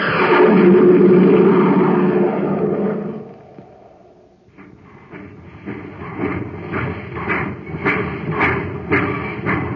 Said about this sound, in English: That's the Terra Express train trying to get up speed on ordinary fuel. Not very speedy, is it?